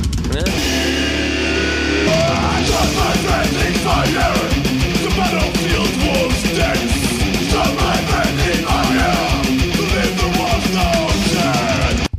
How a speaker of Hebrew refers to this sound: אנחנו שומעים קהל מאוד גדול שם.